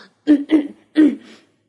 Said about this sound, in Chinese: 蹦蹦清了清嗓子，想对跳跳说点什么。